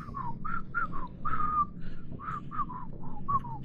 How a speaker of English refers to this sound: The whistling continues. I don't trust good whistlers, so don't worry about it.